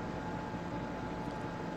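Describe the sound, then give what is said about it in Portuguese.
A steady, continuous mechanical hum like an air conditioner or refrigerator motor, heard as background noise on a participant's microphone, with a broad droning noise and a faint tonal whine, holding an even loudness throughout with no voices. “Tem um ruído muito grande, não sei se é, é com o Paulo ou com o Pedro. É Pedro. É, tem um barulho de tipo um ar-condicionado, um motor de é. geladeira”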